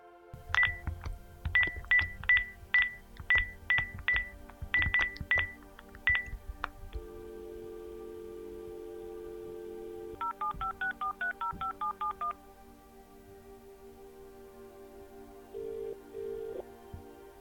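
A quick run of about a dozen clear touch-tone dialing beeps, followed by a steady line tone and a short warbling ring, with no voices.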